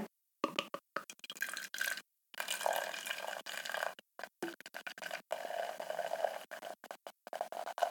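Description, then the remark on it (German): Apple wine glugs and splashes steadily into a pot, a bubbly pouring sound with brief gaps as the flow stops and restarts; no one speaks. “Hab ich schütte mal rein.”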